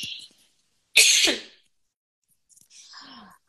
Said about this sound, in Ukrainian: І, Боже, так захоплено говориш, прихнулась, перепрошую. Зараз зніму наушник, щоб не кашляти в цьому в подкасті.